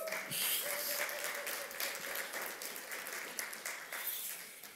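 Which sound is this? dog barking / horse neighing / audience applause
audience applause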